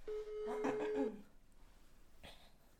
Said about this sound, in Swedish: jag tycker att vi ringer till vår eh, pappa Stefan och kollar